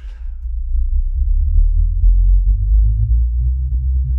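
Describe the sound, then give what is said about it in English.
A loud, deep, self-made synth bass drone throbs steadily, pitching down and then gradually sliding back up, with faint rhythmic clicks ticking over it and no voices. “You can hear it go down there. Mm, yeah. And then it comes up again.”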